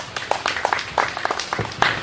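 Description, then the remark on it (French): An assembly at a literary gathering applauds a doctor who spoke about reading Golden Drums, a dense patter of many hands clapping at a steady, moderate volume with no voices standing out. “Nous l'applaudissons, je vous en prie.”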